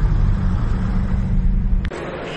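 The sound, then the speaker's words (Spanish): Steady low engine rumble of cars idling outside, with a dense droning hum throughout that cuts off abruptly near the end, leaving a quieter background. “Amigos, voy a empezar a grabar por los coches que hay fuera y como podéis ver, aquí tenemos, bueno, bueno, bueno, Renault 21 Turbo.”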